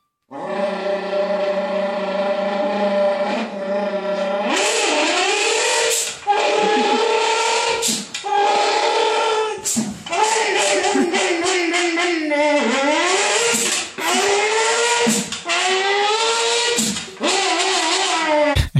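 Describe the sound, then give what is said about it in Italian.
A man imitates revving rally car engines using his voice, a crumpled can and a clothes iron, the pitch climbing and dropping through repeated gear shifts, with sharp hissing bursts from the iron's steam spray imitating turbo blow-off. Loud and continuous throughout. “riesce a imitare perfettamente le macchine da rally con l'ausilio di la sua voce, una lattina spiegazzata e un ferro da stiro”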